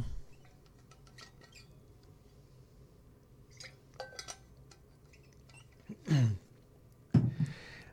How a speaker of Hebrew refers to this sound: אנחנו רוצים, רגע, נשתה איזה שלוק מים לפני?